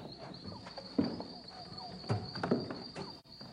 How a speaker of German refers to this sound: Äh, was gibt's denn da? Es scheint derselbe Sound zu sein wie im Wald von Gothic 1.